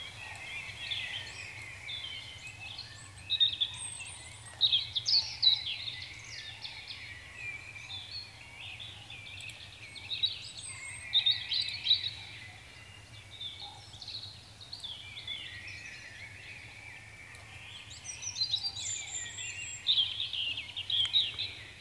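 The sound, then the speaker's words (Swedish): A European robin sings a series of high, thin, warbling phrases with sparkling trills, repeated in bursts with short pauses, over a steady low hum; a crane and a blackbird faintly in the background. “ska vi lyssna lite på Rödhaken vi kan, först?”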